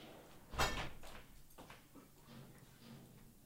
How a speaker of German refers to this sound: Oh. Was war das jetzt? Das ist auch so knallen. Ja. Irgendwas knallt da draußen. Wer hämmert gerade irgendwas kaputt.